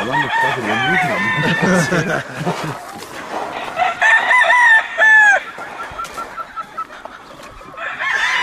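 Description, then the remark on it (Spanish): Roosters crow loudly, one long drawn-out call at the start and another a few seconds later, with scattered clucking and farmyard noise in between. “¿Cada cuando ven los gallos si tienen gorrupos o cada cuándo los...?”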